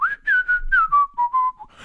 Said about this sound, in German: ich habe diese blöde Angewohnheit, äh, dass ich andauernd pfeife.